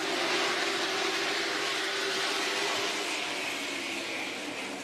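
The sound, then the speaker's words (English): A dense, continuous roar of 32 race car engines at the start of the 125-lap Aaron's 125 at Southern National Motorsports Park, a four-tenths of a mile racetrack: a steady wall of noise with a faint droning tone, easing slightly toward the end. No voices. “32 cars roar to life around this four-tenths of a mile racetrack”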